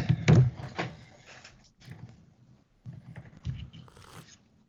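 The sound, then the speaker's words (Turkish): Wet lip smacking and chewing noises from a person eating: a cluster of sharp smacks at the start, then more intermittent smacks and mouth sounds with brief pauses between them. “Ağzını şapırdatıyor ….”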